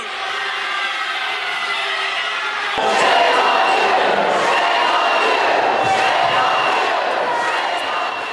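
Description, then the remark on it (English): A large crowd of protesters in the balcony of a state House chamber erupts in loud screaming, booing and shouting in disapproval of a vote expelling lawmakers, a sustained roar of many voices that swells abruptly and stays dense and agitated throughout. “Protesters screamed and booed and shouted their disapproval from that balcony above.”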